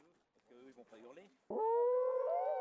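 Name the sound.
people imitating wolf howls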